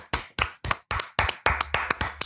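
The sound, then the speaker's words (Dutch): A short burst of applause for Alexander Klupping: about nine crisp, loud hand claps in a steady rhythm that quickens slightly toward the end, with no voices. “Dat is nou, een leuk applaus, applaus voor Alexander Klupping.”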